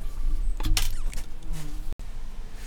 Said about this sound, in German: Okay, sorry Leute, wir mussten äh, gerade irgendwie diese Wespe wegbuxieren.